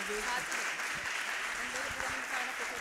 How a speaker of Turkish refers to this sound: Hadi bir alkış.